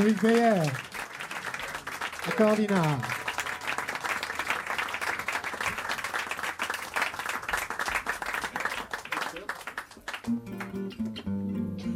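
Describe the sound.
An audience at the Duc des Lombards jazz club breaks into dense, steady applause lasting about ten seconds, with a couple of rising whoops early on. It then fades as a voice begins over the tail end.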